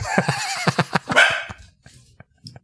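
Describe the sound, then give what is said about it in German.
A dog barks and yelps excitedly in a rapid, high-pitched burst of about eight calls, loud, then trails off into a few fainter yips. “der Hund ist im Hintergrund ausgerastet”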